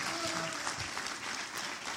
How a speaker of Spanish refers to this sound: ¿Alguien le puede dar un aplauso fuerte a esa sangre poderosa de Cristo?